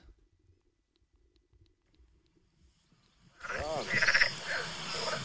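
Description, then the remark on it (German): After a few seconds of near silence outdoors in a park, a loud chorus of frogs suddenly starts croaking, harsh and dense, continuing to the end. “Von Fröschen und Enten.”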